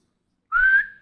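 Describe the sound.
A single short whistle blown by a person's lips, rising slightly in pitch and mimicking a referee's whistle at a basketball game, heard alone.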